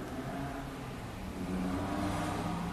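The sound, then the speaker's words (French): A car accelerates through city street traffic, its engine rising steadily with a broad whir and growing slightly louder toward the end, with a constant wash of traffic noise behind it and no talking. “c'est-à-dire que tout à coup, juste d'entendre véritablement, sans idée préconçue que ça devrait être pas l'expérience de la vie urbaine sonore, sans le jugement qu'on a d'habitude, ah, maudit, le trafic, sans ça, avec une attention calme et ouverte,”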